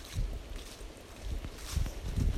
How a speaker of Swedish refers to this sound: Hör ni vattnets brus?